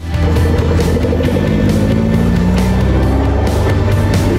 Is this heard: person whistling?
no